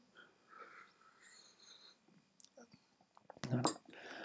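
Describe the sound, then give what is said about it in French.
Soft, breathy sounds lead up to one short, loud slurping sip of hot tea that the drinker had made, near the end, with no talking. “Je vais même me prendre une petite gorgée du petit thé que je me suis préparé.”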